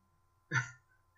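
A single sharp, short sneeze bursts out, surrounded by near silence with a faint background hum.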